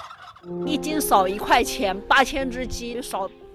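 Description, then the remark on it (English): A flock of turkeys on Lu Man's farm, where 8,000 turkeys were raised in 2013, gobbles in loud, overlapping bursts of warbling calls, several rising and falling in quick succession, with a steady low drone of other birds beneath. “In 2013, Lu Man and her husband raised 8,000 turkeys, but what they reaped was not profits and joy.”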